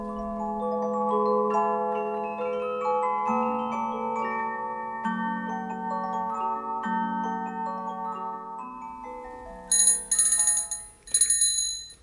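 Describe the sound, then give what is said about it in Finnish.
A doorbell rings twice in quick, bright bursts near the end, following a stretch of sustained, overlapping melodic tones. No one speaks. “Kummallista, kun kukaan ei tule avaamaan. Äiti ei taida olla edes kotona, eikä edes sadelle.”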